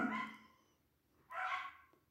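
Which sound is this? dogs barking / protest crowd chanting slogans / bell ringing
dogs barking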